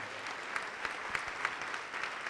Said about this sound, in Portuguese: Eu quero chamar aqui na frente, está chegando mais, vamos aplaudir mais, está chegando mais.